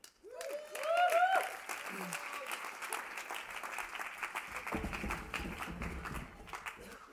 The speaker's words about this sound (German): Und ähm, ich möchte ihn gerne auf die Bühne bitten mit einem herzlichen Applaus.